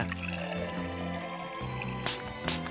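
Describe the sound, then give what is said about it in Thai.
Wine pours steadily into a glass, a continuous gurgling trickle lasting a few seconds, with a couple of brighter splashy moments near the end and no one speaking. “ขอบคุณค่ะวายหน่อยนะจ๊ะ”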